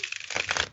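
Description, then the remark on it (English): A quick burst of dense, papery riffling, fairly soft, as a deck of cards is shuffled, with rapid crisp flutters building through its brief span. “I'm shuffling up the cards, by the way. That's that noise”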